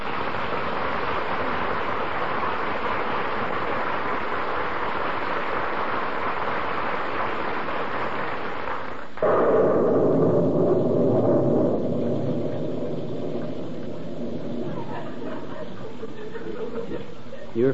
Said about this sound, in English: But, brother and sister, in Wistful Vista, the rain is more wet than jolly. And out in the street, nearly drowned on their feet, are Fibber McGee and Molly.